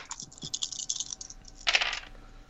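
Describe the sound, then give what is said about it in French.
Five dice clatter and rattle together as they are rolled, a quick flurry of clicks followed by a brighter burst of tumbling taps, fairly quiet, with no voices. “Donc, vu que c'est charme, j'ai 5 dés en charme, je roule 5 dés, c'est ça?”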